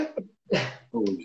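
A sharp sneeze burst followed by another breathy, voiced sneeze, two quick explosive blasts with a brief pause between them and no talking.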